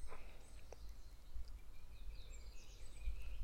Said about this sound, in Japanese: 今日もね小鳥の BGM の中お届けしました